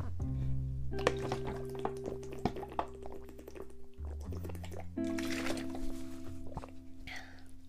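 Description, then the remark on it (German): Liquid sounds of sparkling water being poured and sipped: splashing and drips, with a burst of fizzing hiss partway through, over a steady low musical drone. “ich weiß, du kannst für dich antworten, aber ich mag Sprudelwasser mehr. Vor allem, wenn es kalt ist. Oh mein Gott, das ist so juicy.”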